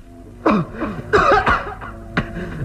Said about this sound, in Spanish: Telma permanece arrodillada junto a una pequeña fogata, sosteniendo un recipiente con hierbas que despide un intenso olor, mismo que hace toser a Solín.